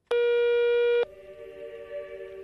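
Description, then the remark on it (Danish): Rabuffi's telephone rings once with a loud, buzzy electronic tone lasting about a second, then drops to a quieter, lower sustained tone. No one speaks. “Og øh, en dag, så ringer Rabuffis telefon.”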